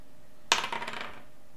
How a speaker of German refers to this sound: Wir würfeln aus, wer anfängt. Ähm, der Ältere darf zuerst würfeln.